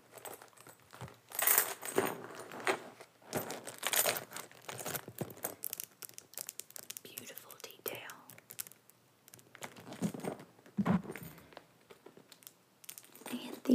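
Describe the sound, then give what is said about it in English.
Light metallic jingling and clinking of a small gold chain attached to a purse strap, with chains on both sides of the bag, in short bursts mixed with soft handling rustles, while someone whispers. “I love the gold detail on this purse, like the little chain that attaches to the strap here.”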